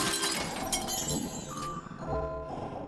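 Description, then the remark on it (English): A glass jar is smashed over an attacking creature's head, a loud, bright burst of shattering followed by a dense spray of tinkling shards and debris that rattle and settle over a few seconds. “I grabbed a jar and smashed it over the head just as a claw connected with the side of my face.”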